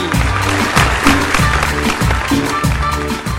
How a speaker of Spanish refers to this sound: ¡Aplausos!